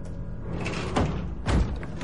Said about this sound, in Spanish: Una mujer abre un ventanuco y los mira.